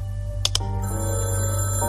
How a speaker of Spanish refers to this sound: En la oscuridad sonaba un teléfono, un ruido metálico, desconocido.